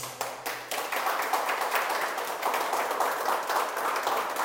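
An audience breaks into sustained applause for God, a dense wash of many hands clapping at a steady loudness for several seconds, with no voices rising above it.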